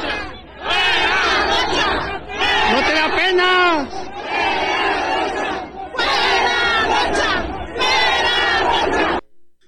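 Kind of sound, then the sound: crowd, crowd booing and shouting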